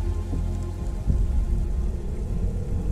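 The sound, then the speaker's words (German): Steady rain pours down without a break, a dense, even hiss with a heavy low rumble underneath and a slightly stronger gust of sound about a third of the way in. No voices. “In the rain.”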